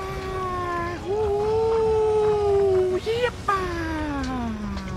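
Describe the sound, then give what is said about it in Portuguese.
A loud, sustained whine with a strong buzzing tone comes out of nowhere from far off, growing and accelerating with a Doppler effect; it holds steady, bends upward briefly, then slides steadily downward in pitch toward the end, like something rushing past. “E esse barulho, ele vem lá do fundo do nada e aumentando. Sabe aquele efeito Doppler que vem do fundo e vem acelerando, aumentando a velocidade?”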